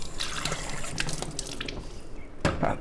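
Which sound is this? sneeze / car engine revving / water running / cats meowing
water running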